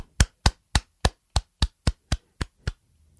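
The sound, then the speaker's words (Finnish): A single person claps ten times in a steady, even rhythm in congratulation, each clap sharp and crisp, then stops. No one speaks. “Onnea. Se onnettelut taputan täällä.”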